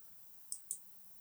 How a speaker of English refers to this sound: As I'm doing this episode, I'm clicking away, and I do apologize if you can hear mouse clicks on there.